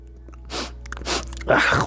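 Crunchy chewing of hard bread: three loud, gritty bites spaced about half a second apart, growing slightly louder, with no talking.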